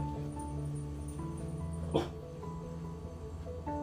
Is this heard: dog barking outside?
yes